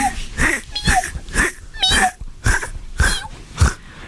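A cat comes over and scratches: about eight rhythmic, evenly spaced scratchy bursts over a few seconds, fairly loud, with faint squeaky cat-like tones mixed in and no talking.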